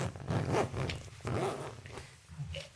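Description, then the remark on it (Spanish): A jacket zipper is pulled open in a few raspy strokes, each a short burst of ratcheting noise, with no talking. “Perdón que me estaba desabrochando la chumpa por si oyeron ahí un ruido extraño, no es que me esté cagando.”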